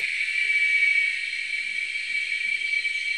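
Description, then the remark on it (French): A dense chorus of seven cicada species, recorded in Veracruz state, Mexico, buzzes continuously at high pitch, several overlapping layers forming a steady, loud wall of sound with one shrill tone standing out, and no voices. “Alors c'est un chœur euh, de sept espèces de cigales enregistrées au Mexique, dans l'état de Veracruz.”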